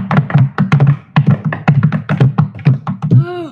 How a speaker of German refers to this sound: Aber der junge Prinz Aha hörte nur noch von Weitem das Getrappel seiner Pferde.